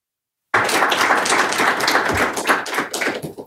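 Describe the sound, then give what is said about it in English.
A crowd bursts into applause for the panelists after a moment of silence, a dense, steady patter of many hands clapping for about three seconds before it starts to thin out. “I think our panelists deserve our applause today for being such”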